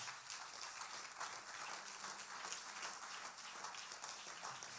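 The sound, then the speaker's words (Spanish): A crowd at a worship service claps steadily and loudly as applause to God, a dense, continuous wash of applause from many hands that holds without a break for the whole stretch, with no voices standing out. “Denle ese aplauso fuerte a Dios por ellos.”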